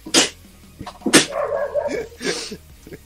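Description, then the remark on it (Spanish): A dog lets out two sharp, breathy barks about a second apart, followed by a short whiny yelp and one softer bark, with no talking. “Chao, perro culiado. También se tiene que despedir.”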